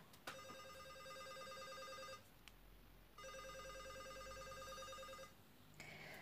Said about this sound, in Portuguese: Seu coração foi parar no estômago quando o celular tocou.